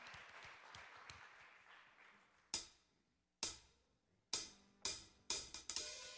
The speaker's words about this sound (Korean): 우리 사랑의 주님께 놀라운 사랑의 주님께 우리 감사와 영광의 박수 한번 올려드립시다. 할렐루야. 아멘.